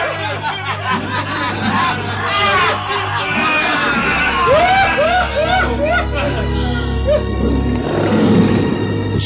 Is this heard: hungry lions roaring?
yes